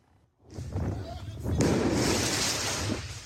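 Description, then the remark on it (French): Firework mortar shots fired at firefighters during an intervention on the night of 14 July in Paris's 20th arrondissement go off amid noisy commotion: a rumbling burst, then a sharper, louder blast followed by sustained crackling hiss, with indistinct voices mixed in. “Des actes de vandalisme, mais aussi de violence, comme ici dans le 20e arrondissement, où des pompiers en pleine intervention sont visés par des tirs de mortier.”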